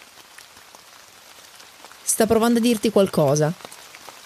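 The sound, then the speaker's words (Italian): Soft rain patters and hisses in the background throughout, increasing in strength, and partway through a voice speaks briefly over it before the rain continues alone. “Continui a camminare e provi a ignorarla, ma la pioggia aumenta e inizia a sentirne il rumore.”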